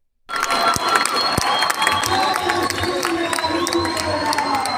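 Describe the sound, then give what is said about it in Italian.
A large crowd cheering and shouting at a pro-Palestine demonstration, a dense, steady roar of many voices with scattered whoops and a low rhythmic chant of "Palestina libera" and "Libertà" pulsing underneath. “vi faccio vedere quello che non avete visto sugli altri canali. Le le manifestazioni pro-Palestina. Sentite e vedete.”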